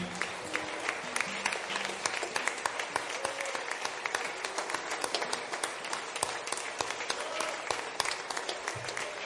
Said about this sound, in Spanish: Démosle un fuerte aplauso a nuestro Señor. Amén.